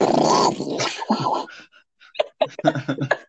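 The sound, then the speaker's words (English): Someone imitates a rabid dog: a harsh, rasping growl, then a string of short snarling, snapping bursts in uneven rhythm, loud and aggressive. “It's like a dog. It's like a rabid dog.”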